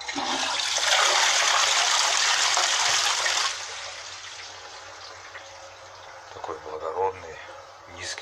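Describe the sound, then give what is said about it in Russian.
A new, wide toilet flushes with a loud rush of water for about three seconds, then subsides into a quieter refilling trickle and gurgle. “Так, вот он звук моего нового унитаза.”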